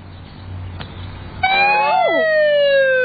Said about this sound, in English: Would you like to sound the siren? Yes, please. Now get ready, because this siren is very, very loud. It has to tell all the cars on the road to pull over and let the fire truck through. Ready?